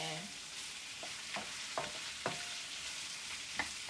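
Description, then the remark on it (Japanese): Two onions sizzle steadily in a hot pan over high heat, broken by several sharp scraping clicks as a spatula stirs them at irregular intervals; continuous, with no talking. They are being fried for about 10 minutes until deep brown, darker than golden. “作り方見るとね強火で10分は玉ねぎを炒めてくれとしかもねたぬき色に炒めてほしいんだってきつね色じゃなくてたぬき色さらに濃いってことですよ”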